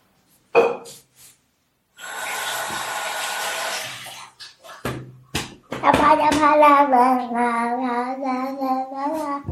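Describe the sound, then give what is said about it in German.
Wet squishing as hands knead bread, dried and then soaked in water, into a meatball mix: a sustained squelch, then a few sharp slaps and smacks, followed by a voice making drawn-out sounds. “Uh, feuchtes Brot. Ja, das war trocken und das habe ich jetzt wieder eingeweicht in Wasser.”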